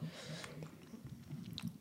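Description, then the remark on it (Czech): Steady chewing of a crunchy cheese snack, with repeated crisp bites and crackles over about two seconds, fairly quiet, with no talking. “A zároveň jsem měl hlad, takže mám síra křup.”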